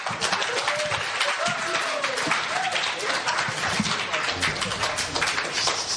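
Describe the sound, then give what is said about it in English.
A large crowd claps steadily and loudly for the band throughout, a dense, continuous wash of applause with a few voices cheering and calling out underneath. “Let's give the band a hand there.”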